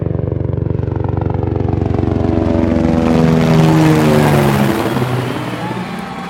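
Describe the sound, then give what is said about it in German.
A loud helicopter carrying 'der Kaiser' passes overhead above the fan zones in Germany in summer 2006, its steady rotor thrum and engine whine swelling and then shifting lower in pitch as it moves past. “Unten Schland, oben der Kaiser im Hubschrauber.”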